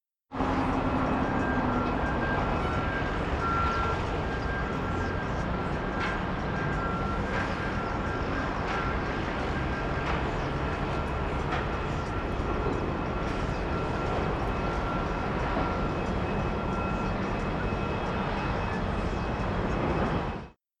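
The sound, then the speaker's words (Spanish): A street ambience field recording from freesound.org, made in the street: a dense, steady roar of traffic or engine noise with a faint sustained whine on top, holding at an even level throughout with no clear voices. “El segundo audio es simplemente una grabación también obtenida de freesound.org, en la que se graba en la calle.”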